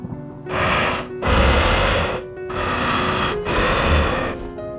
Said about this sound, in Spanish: No escuché respuesta, pero aquella respiración seguía escuchándose.